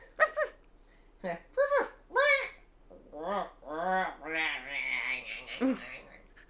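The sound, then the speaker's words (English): A voice imitates a snarling dead, evil dog: three short yelping bursts, then a longer strained, wavering growl-whine that rises and falls before a final gasp. “it's my dead it's my dead evil dog noise.”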